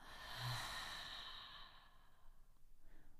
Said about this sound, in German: Und noch ein letztes Mal atmen wir zusammen. Durch die Nase ein und durch den Mund aus.